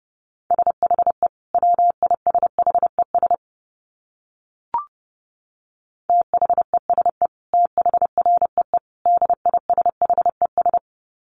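Rapid Morse code at about 30 words per minute: a steady mid-pitched tone keyed into quick runs of short dits, with a pause and a single click midway, then more runs.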